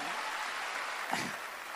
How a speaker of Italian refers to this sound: Ho trovato un Carlo Calenda in grandissima forma, fategli un applauso perché secondo me si sta iniziando a divertire.